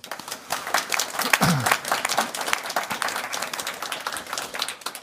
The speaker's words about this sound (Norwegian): Eh, gi Arve en applaus.